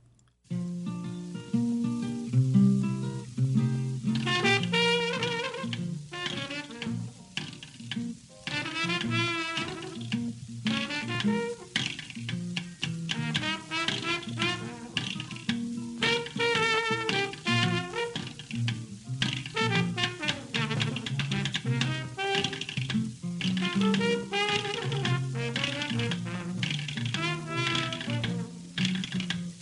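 A jazz recording made in 1929, with an early New Orleans jazz feel, plays without pause, melodic lines over a swinging drum beat with crisp hits whose drumming style changes partway through, the whole band loud and busy, and no one talking.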